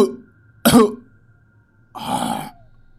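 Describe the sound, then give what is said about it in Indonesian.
Two harsh, raspy coughs from a dying old man, close by, the first a sharp explosive burst and the second a longer, rougher hacking exhale after a short pause, with no talking around them. “Dan mendadak suara batuk sekarat itu terdengar dekat di kupingnya.”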